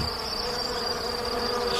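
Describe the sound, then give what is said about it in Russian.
A dense, steady buzzing of many wild bees at their nest inside a dead lion's carcass in a field, a continuous droning hum with a thin high whine layered on top, sustained without pause and with no voices. “В мертвом льве дикие пчелы устроили себе гнездо.”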